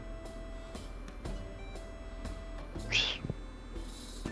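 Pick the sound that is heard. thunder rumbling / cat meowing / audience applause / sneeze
cat meowing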